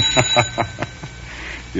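A doorbell at a front doorstep, rung by a man, rings in a quick burst of about five bright, metallic strikes, fairly loud, before the ringing stops and a faint hum lingers.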